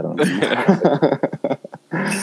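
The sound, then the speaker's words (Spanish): A person growls like a wolf, a rough, voiced snarl that breaks into short choppy bursts before swelling into one more sustained growl, loud with no other sounds. “me voy a convertir en lobo defendiendo a Chalá”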